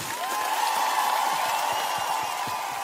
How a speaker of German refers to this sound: Das Jubeln wurde noch lauter, als um 16 Uhr durchgesagt wurde, dass der Hallische FC das Auswärtsspiel in Mannheim mit 4 zu 0 gewonnen hat.